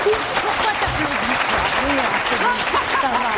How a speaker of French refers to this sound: Pardon, excusez-moi. Non, non, c'est pas la peine d'applaudir, j'en coupe 5 minutes,